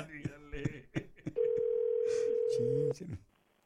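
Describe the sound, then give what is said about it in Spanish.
A steady, single-pitched telephone tone holds for about a second and a half, loud and unbroken, as a call rings through. Brief bits of speech come before and just after it. “Este no, no, llámale, llámale, llámale ahorita, ya le están llamando, carnal, ¿eh?”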